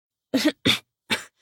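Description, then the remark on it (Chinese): Three sharp, harsh coughs in quick succession from a woman choking on a sip of baijiu (Chinese white liquor), followed by a faint breathy rasp as the fit trails off. No one speaks. “…呢，抿了一口，呛得咳嗽起来，”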